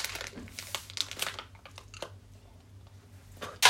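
biting and chewing food

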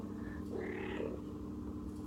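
cat purring or meowing

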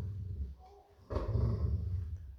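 dog growling

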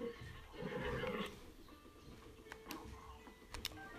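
horse neighing

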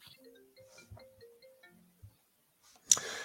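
phone ringtone

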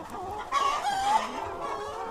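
hens clucking

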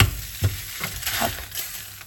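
food frying

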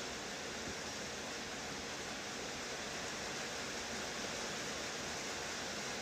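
rain

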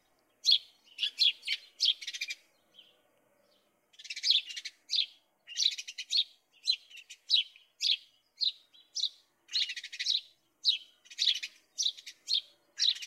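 sparrows chirping

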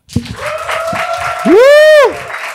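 audience applause

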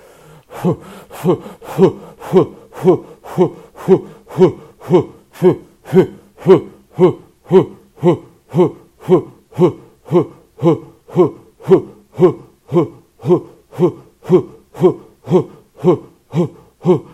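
rapid

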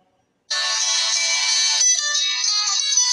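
nokia mobile phone ringtone

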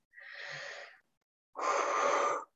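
yawning

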